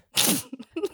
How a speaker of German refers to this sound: das muss man immer machen, wenn jemand hustet, Gesundheit sagen.